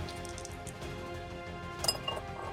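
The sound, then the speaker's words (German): A four-sided die and a wild die, rolled for a Constitution check, clatter across a hard tabletop, a quick burst of sharp little clicks and taps near the end over a steady low background hum. No one speaks. “Oh, da habe ich einen Viererwürfel. Aber auch hm. mit Wild Die, ne?”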